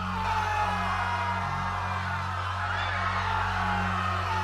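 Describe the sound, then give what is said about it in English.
A crowd of passengers in dark train cars screaming and yelling together as they turn on each other, a dense, continuous wall of voices, loud and unbroken throughout, over a steady low droning hum. “But after the third hour, the screaming started.”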